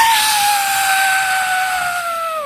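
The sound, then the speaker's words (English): A person imitates a woman's scream with one long, loud, high-pitched shriek that holds steady for about two seconds, breathy and strained, then drops off sharply at the end. “And she just stands there and screams.”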